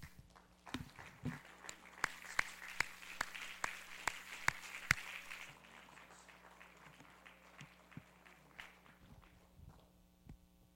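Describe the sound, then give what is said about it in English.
An audience claps in praise of the Lord, a dense patter of many hands with sharp rhythmic beats standing out for a few seconds, then the applause thins and fades away over a steady low hum. “In Jesus' name, if you would give the Lord a hand clap of praise.”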